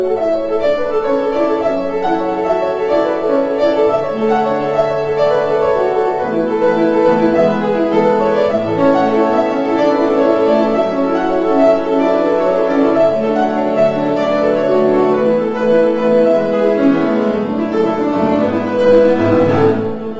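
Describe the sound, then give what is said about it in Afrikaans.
The instrumental signature tune of the RSG Kuns radio programme plays steadily throughout, full and layered with sustained harmonic tones, holding a fairly even, moderately loud level with no voices over it. “Dit dan nou die kenwysie van RSG Kuns.”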